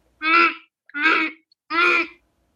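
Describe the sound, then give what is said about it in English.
Three loud, nasal goose honks in a steady rhythm, each about half a second long with short pauses between, with no other sounds. “The giant's wife walked over to the goose who laid a golden egg.”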